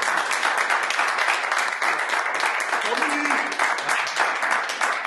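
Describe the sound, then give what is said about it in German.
Sustained applause from a crowd, a dense, steady wash of many hands clapping at once, fairly loud and continuous throughout, with faint voices mixed in. “Hey, Applaus. Jetzt Applaus hier.”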